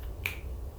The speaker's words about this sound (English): Snap.